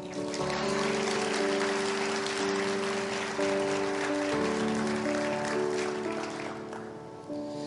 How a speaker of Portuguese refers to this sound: Bata uma salva de palmas para Jesus aí.